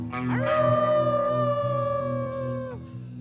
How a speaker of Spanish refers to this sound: era una noche terriblemente fría. Solo se oía un aullido que así decía.